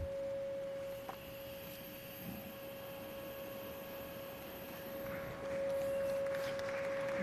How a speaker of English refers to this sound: On that side is a speaker, and here is some lab tubing, and it's connected to this tank of propane. So, Let's fire it up and see what it does. So let's play a 550 hertz frequency and watch what happens.